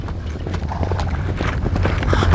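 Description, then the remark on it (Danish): Steady clip-clop of horse hooves with a rumbling low undertone of a horse-drawn carriage coming along a path, growing gradually louder as it approaches. “Så du også den karet med hovedløse heste?”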